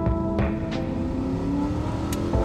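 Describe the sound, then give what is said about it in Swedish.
A car engine revs hard and accelerates, its steady low roar rising and falling with a few sharp bursts of throttle, loud with no voices, as an upset driver pushes the car on an icy day on the M1 motorway in England. “Han är inte på sitt bästa humör och bilen får känna på humörsvängningarna.”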